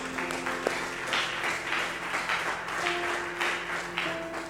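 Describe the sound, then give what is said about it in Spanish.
Steady applause from a crowd after a prayer, a dense continuous patter of many hands clapping at a moderate level, with a faint sustained tone running underneath and no voices. “Un aplauso.”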